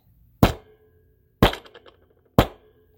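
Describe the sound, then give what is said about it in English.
A gavel bangs three times to start opening arguments, about one sharp wooden knock per second, loud, with brief ringing after each strike and quiet in between. “All right, so now we're going to bang the gavel.”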